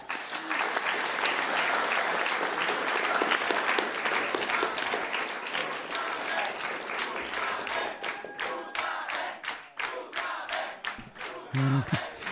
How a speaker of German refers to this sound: Und ich, also jeder hat den Applaus verdient und das ist eigentlich egal, wie laut der war. das ist immer ähm, schön, wenn man dann Applaus bekommt, weil man merkt, dass es dem Publikum auch gefallen hat.